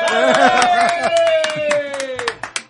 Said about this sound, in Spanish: muchas gracias, muchas gracias. Un aplauso, por favor.